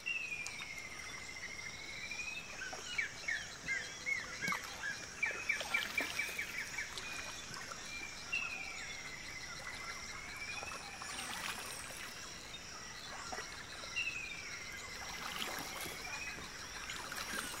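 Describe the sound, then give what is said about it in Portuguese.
Two Amazonian forest bird species, a chororó negro on the left bank and a galinha do mato on the right bank, trade calls across a stream (igarapé): slurred whistles that return every few seconds and a quick run of chattering notes, all over a steady insect drone with no one speaking. “aqui, um chororó negro, na margem esquerda, conta as últimas novidades a uma galinha do mato que está do lado direito do igarapé.”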